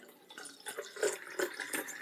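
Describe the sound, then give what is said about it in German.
Still water being poured into a glass, a steady trickle with a few brighter splashy surges as the level rises, no voices over it. “Gießt du dir gerade ein Wasser ein?”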